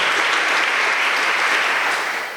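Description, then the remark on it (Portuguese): A church audience applauds together in thanks to those who worked at the parish festa junina, a dense, steady wash of many hands clapping at an even level before tapering slightly at the end, with no voices heard. “A eles também queremos dar uma salva de palmas em agradecimento.”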